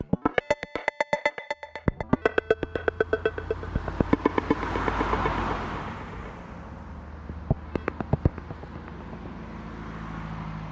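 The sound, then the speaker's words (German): A number 636 bus rumbles in to the Zollhaus bus stop with a low engine drone that swells and fades, accompanied by rapid clicking ticks early on and a few sharp clanks near the end, with no voices. “verlassen die Bushaltestelle Zollhaus nicht mit dem 636er Bus, der daherfährt, sondern mit unserem Mietwagen.”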